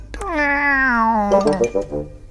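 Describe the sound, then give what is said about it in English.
A person imitates a cat's meow: one drawn-out, whiny vocal tone that slides down in pitch, followed by a few short, choppy voiced sounds, fairly loud. “Meow.”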